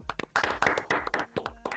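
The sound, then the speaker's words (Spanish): A short burst of applause from a few people, with quick, irregular, sharp hand claps that overlap into a dense patter before trailing off into scattered claps. “Se merece un aplauso.”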